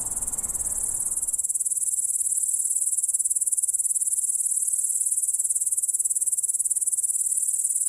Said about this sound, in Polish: Wydaje nam się, że wszystkie świerszcze śpiewają jednocześnie, ale po dokładniejszym przyjrzeniu się okazuje się, że wydają dźwięki po kolei.